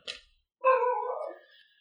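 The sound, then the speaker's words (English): A dog gives a brief sharp noise, then one drawn-out, tonal bark that slides downward in pitch and trails off. It sounds clear, with no one talking. “Oh, the dog's barking.”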